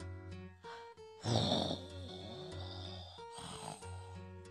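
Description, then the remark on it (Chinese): Heavy snoring heard from outside a window on a sunny day, from Mr. Wolf in a reading of Colin McNaughton's picture book: a few drawn-out, low rumbling snores with a rough, breathy rasp, fairly loud and steady, with no talking. “小猪普莱顿听到窗外有一阵阵呼噜声，于是打开窗子往下看。”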